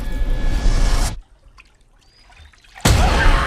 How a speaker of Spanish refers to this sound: Ay, ahí ese agua que ya Ese chapoteillo. Marca algo, eso marca algo ya.